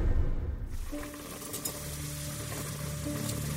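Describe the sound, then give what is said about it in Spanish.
Fried eggs sizzle steadily in a frying pan, cooked for breakfast in a caravan, a continuous crackling hiss with faint pops, over a low steady hum. No one speaks. “Stephen y su esposa desayunan huevos fritos y café en la caravana.”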